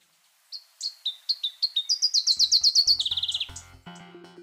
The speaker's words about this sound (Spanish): El trino del arañero cabecinegro forma parte del Banco de Sonidos de Aves Colombianas, recopilado por el Instituto von Humboldt y la Universidad de Cornell.